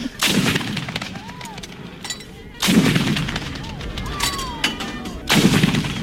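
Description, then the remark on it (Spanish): Three heavy cannon shots boom out at roughly even intervals, each a loud blast followed by a long rumbling echo that fades before the next shot. “A ver, que suenen por lo menos tres cañonazos.”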